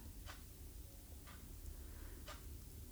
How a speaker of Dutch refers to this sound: Dus je hoort de klok tikken of je merkt op dat er een bepaalde sensatie is ergens in je lijf.